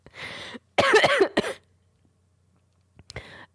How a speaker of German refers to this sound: Mit hoffentlich äh, ganz viel rausgeschnittenem Gehuste. Das jetzt wieder mit drin ist. Ja, tut mir leid.